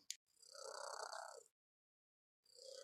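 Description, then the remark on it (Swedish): A cat named Irma purrs in two drawn-out, rumbling stretches separated by a short pause, with a brief click at the start and no voices. “Så om det börjar spinna eller jama så...”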